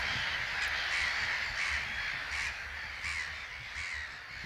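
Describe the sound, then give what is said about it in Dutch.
Raspy crow-like caws of birds on Vogeleiland repeat in a steady series of about six calls, moderately loud over a constant hiss of wind or water, with no one speaking. “De vogels zijn er nog.”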